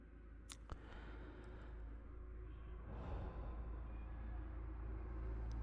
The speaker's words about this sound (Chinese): 听到外面有非常严重的这个汽车声吗？其实我就是住在路边的，所以说效果没那么好，嗯希望大家见谅。